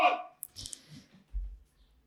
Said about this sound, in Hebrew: המלט כזה כלב מעצבן, עד שאנחנו במשפט טוב. שנייה.